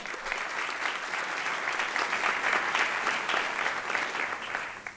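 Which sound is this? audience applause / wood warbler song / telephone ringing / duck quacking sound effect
audience applause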